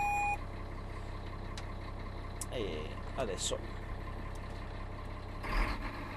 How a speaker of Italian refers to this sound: Il gatto si è acceso, la cavalleria è in moto. Qual è la potenza di questo animale? Circa 500 cavalli, qualcosina in più. Allora siamo pronti per partire? Sì, siamo pronti per, per partire, il motore è sufficientemente caldo.